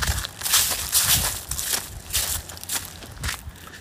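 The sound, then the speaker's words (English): Footsteps crunch through dry autumn leaves at a steady walking pace on a crisp, cool, sunny day, each step a crackly rustle repeating roughly twice a second with no talking. “Um, a little bit of crunchy leaves”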